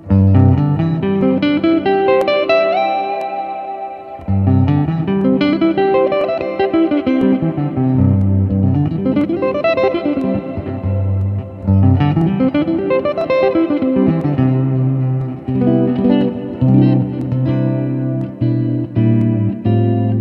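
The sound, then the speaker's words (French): An effects-laden electric guitar plays the notes G, C, D, E with sustained, distorted tones and sliding pitch sweeps, loud and continuous apart from two short breaks, with no talking. “Donc là, en fait, simplement, je fais Sol, Do, Ré, Mi. Et ça, par exemple, c'est un truc...”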